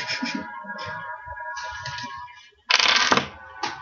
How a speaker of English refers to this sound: For more sound effects of terror and horror, please flip the tape over to side two.